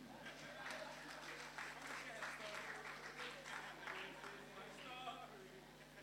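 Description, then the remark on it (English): A crowd applauds steadily for about six seconds, a dense wash of many hands clapping together, with scattered voices and cheers mixed in, after a speaker asks them to clap for a man. “Clap for him.”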